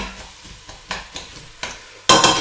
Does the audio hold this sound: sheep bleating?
no